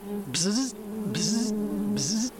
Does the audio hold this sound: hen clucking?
no